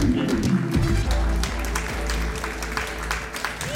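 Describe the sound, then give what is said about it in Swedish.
A live audience at the Podfest event applauds steadily to welcome the hosts on stage, a dense wash of clapping that stays loud throughout, with a low rumble of music or crowd noise underneath. “En stor applåd för Sveriges sämsta folkbildare.”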